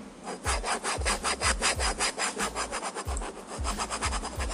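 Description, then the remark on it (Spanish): A ruler scraped rapidly back and forth across a folder, producing a steady run of gritty, rasping strokes with a record-scratch feel, fairly loud, with no talking. “Para mi segundo, para mi segundo sonido voy a utilizar una regla y, y una carpeta.”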